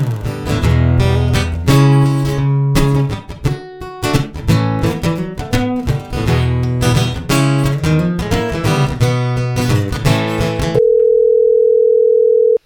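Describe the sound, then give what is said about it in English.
Music plays for about ten seconds, then cuts to a steady telephone tone, a single sustained ring of an outgoing phone call to Dacre C. Stoker, made on a blustery fall afternoon, heard clearly and alone at the end. “So, on a blustery fall afternoon, I called him up we talked about it all.”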